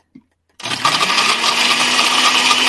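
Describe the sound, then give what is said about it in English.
After a faint click and a moment of quiet, a blender roars to life, whirring loudly and steadily as it churns a frozen drink with ice, its motor whine holding constant to the end. “This, we put this in a blender. Now you guys don't laugh, but we're gonna blend this baby up right now.”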